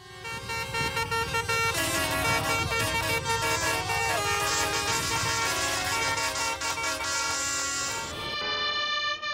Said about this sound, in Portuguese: Esse é o barulho de centenas de tratores que travam algumas das mais importantes rodovias da França.